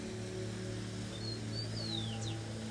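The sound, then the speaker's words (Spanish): A couple of thin, high bird whistles slide downward near the end, fairly faint against a steady low rumble of wind outdoors. “Y a pesar de lo que sea, los portitos siguen cantando.”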